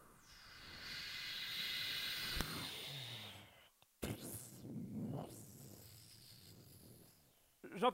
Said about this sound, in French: Euh, Qu'est-ce que c'est que ce bruit Oh, c'est le moteur qui vient de tomber en panne.